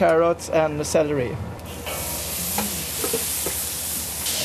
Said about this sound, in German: Den Knoblauch tue ich dann etwas zur Seite, denn wenn er zu heiß wird, dann kann das etwas bitter werden. Uh, das sehr klein geschnittene Gemüse wird einige Zeit gebraten und dann kommen noch getrocknete